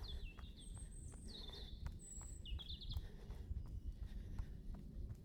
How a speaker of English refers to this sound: I think the birds are settling down well, I don't know, they've probably got hours to go yet. Feels like they're settling down. Feels like I'm infringing on their nighttime tweeting bird song.